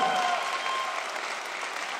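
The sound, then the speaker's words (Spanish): A crowd gives a 'rain applause', clapping to imitate rainfall in a dense, steady patter, the many hands blending into a continuous hiss. The applause stays fairly even throughout, with no voices standing out. “Vamos a darle un aplauso de lluvia. Que se oiga la lluvia.”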